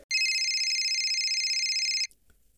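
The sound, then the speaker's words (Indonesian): A loud telephone ring at two o'clock at night: a continuous, high-pitched electronic trill with a fast warbling pulse, lasting about two seconds before cutting off abruptly, with no voices. “Sapa sih jam loro bengi iki telepon gak ngenang-ngenang wong turu ae.”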